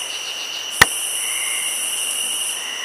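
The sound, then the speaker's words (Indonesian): A single sharp, loud clap cuts through a steady background of chirping crickets and insects, then the night ambience continues alone. “Tiba-tiba terdengar suara tepukan yang keras.”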